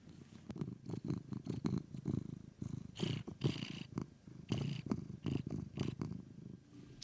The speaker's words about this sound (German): Außer Schnurren kommt da nichts mehr raus.